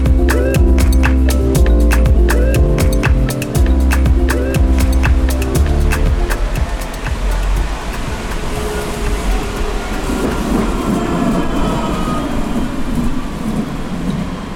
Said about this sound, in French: Bon, c'est le deuxième tramway qui passe, et cette fois-ci, je ne peux pas le louper. C'est la première fois que je prends la ligne C depuis son inauguration au mois de juillet. Direction, le quartier de Belbeille à Angers.